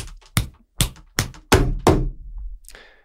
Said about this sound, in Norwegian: Hører du det? Det er faksmaskinen til Todd Bowley. Den er i gang.